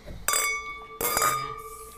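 Two bright glass clinks in a toast about three-quarters of a second apart, each leaving a clear ringing tone that lingers, fairly loud with no voices.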